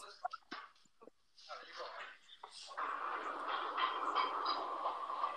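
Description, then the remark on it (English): A few short clattering bursts give way to the steady, loud rumbling roar of a subway train running on rails, which continues without a break to the end. “It's y'all in the subway?”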